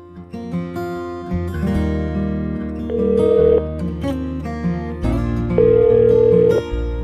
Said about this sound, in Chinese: 现在电话已经接通了，就等林爸爸可以把电话接起来。